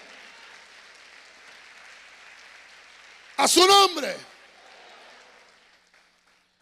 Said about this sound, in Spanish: Si usted es pueblo de Dios, dele palma fuerte al rey.